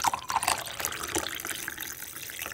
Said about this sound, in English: But the best part of the process is pouring a cup of coffee